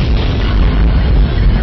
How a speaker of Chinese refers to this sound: 这时候呢就变天了。变天之后，咔咔这雷就打起来。